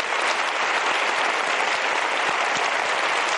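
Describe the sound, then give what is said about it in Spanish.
An audience claps steadily for a couple, praised as very brave, a dense, even wash of many hands applauding without pause at a fairly loud level throughout. “Un aplauso, por favor.”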